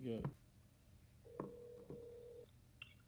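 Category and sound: signal or alarm, telephone call being dialed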